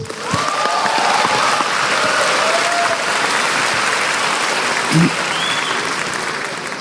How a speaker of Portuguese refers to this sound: Pode aplaudir eles.